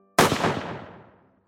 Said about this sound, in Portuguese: Enquanto eles riam da piada, foram subitamente interrompidos por um alto barulho de tiro que rasgou o céu.